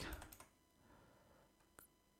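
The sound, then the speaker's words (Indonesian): A quick burst of computer keyboard typing while entering JavaScript code, several sharp keystrokes clustered at the start, then a pause and one last isolated key tap; quiet, with no voices. “Terus kemudian di bawahnya nah kita ketikkan script untuk ada action dari JavaScript-nya gitu ya.”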